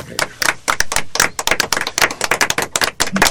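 A burst of applause: a small group clapping steadily and fairly loudly, with sharp, irregular claps overlapping in a dense, continuous patter for a few seconds.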